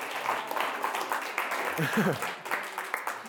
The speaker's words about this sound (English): Were you applauding? Yeah. Yeah. Let, hey, let's let's do that, man. for real.